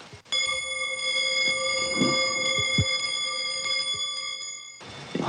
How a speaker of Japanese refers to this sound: チタンの音っていうのは鉄の音とはどどういうふうに違いますか金属が違えばそれぞれなんですけど、とりあえず火箸の音聞かれます、はい